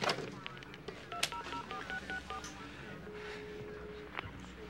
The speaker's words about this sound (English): yeah, so he takes the phone out of the evidence bag, out of the evidence box, and plugs it back in and hits automatic redial